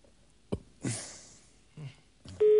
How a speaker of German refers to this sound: Also ich habe dir tausendmal gesagt, du sollst nicht ins Mikro rülpsen.